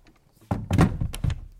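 A balcony door is pushed shut with a few muffled thumps and rattles of the frame and latch over about a second, with no one speaking.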